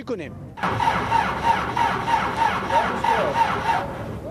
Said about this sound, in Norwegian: i utkanten av Kabul har de startvansker med en traktor.